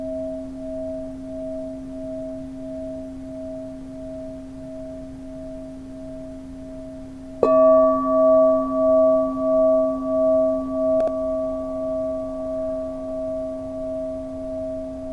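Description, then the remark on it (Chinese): A crystal singing bowl, the White Tara bowl for the root chakra, hums a steady, pure low tone; midway another strike adds a brighter higher note, and the sustained ring pulses slowly as it wavers, with no talking. “一起進入水晶缽的療癒”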